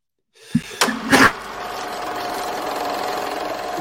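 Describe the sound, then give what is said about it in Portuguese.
A sudden, loud sneeze from someone coming down with a cold, with a quick sharp intake just before it, then fades into a steady low mechanical hum with no talking. “fui espirrar logo na hora de te chamar aqui.”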